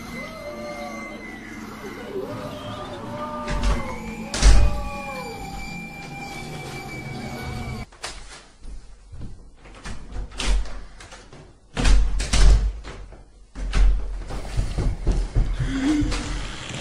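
Drawn-out squeaky creaks repeat in a slow rhythm as a body hanging from the ceiling of a bedroom sways rhythmically, growing louder, followed by heavier knocks and rattling thuds.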